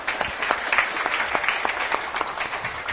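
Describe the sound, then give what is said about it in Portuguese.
A round of applause from a small group fills the whole stretch, dense overlapping claps at steady moderate loudness, with no talking over it. “Uma salva de palmas.”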